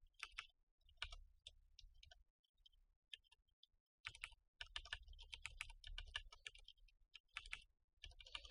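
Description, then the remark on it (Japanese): Rapid clicking keystrokes on a computer keyboard, typed in quick irregular bursts with brief pauses between, fairly quiet, with no talking, as someone tries to type the Japanese word for a foreign settlement. “なんかキーボードがうまく打てないんですよね、最近。居留地が打てないです。”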